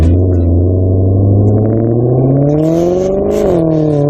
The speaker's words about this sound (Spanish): esto es un masaje para mis oídos. Todo de un Maserati.